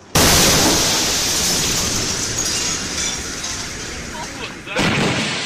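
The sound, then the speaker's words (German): A sudden, loud explosive blast from a meteor exploding over Chelyabinsk erupts and rolls on as a sustained, roaring rumble with crackling, shattering texture as its shockwave bursts window panes, followed by a second sharp burst near the end. “Seine Explosion schickte eine Druckwelle über Tscheljabinsk hinweg, die vor allem Fensterscheiben bersten ließ.”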